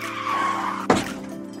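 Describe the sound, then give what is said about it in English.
Car tires squeal in a long, loud skid that ends in a sudden crashing impact, followed by a brief fading rumble. No voices are heard. “It's car crashes.”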